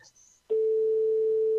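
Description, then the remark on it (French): A brief, faint murmur of voice gives way to a telephone ringing tone on the line: one steady, pure, mid-pitched beep that starts abruptly and holds loud and unbroken for over a second. “16h50 sur la radio des sonneries des téléphones.”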